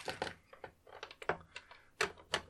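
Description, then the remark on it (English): Loud clatter of a dice box being put away: a quick series of sharp clicks, knocks and rattling thumps at irregular intervals, with no voices. “loud sounds of me putting away the dice box.”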